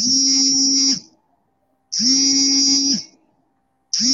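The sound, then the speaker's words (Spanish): A loud electric buzzer sounds in steady one-second blasts separated by equal pauses, two full buzzes and the start of a third, harsh with no voices. “Escuchamos el zumbido.”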